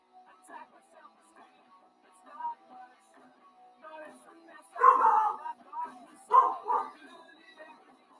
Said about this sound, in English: You're ruining another podcast this week. Come here. That's just Carson. Don't bark at him.